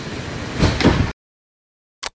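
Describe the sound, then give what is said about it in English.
Train sliding doors rush shut with a loud, hissing mechanical whoosh lasting about a second, followed by a brief silence and a short, sharp clunk as they seal. No one speaks. “Did you stand clear of the doors?”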